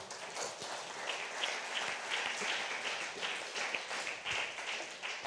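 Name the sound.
audience applauding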